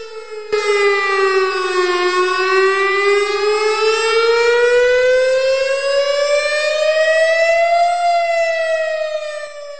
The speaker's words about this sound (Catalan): Així, el novembre de 2022 es va realitzar un simulacre en el qual s'activaven les sirenes i s'instaurava l'ús del sistema de missatge SMS.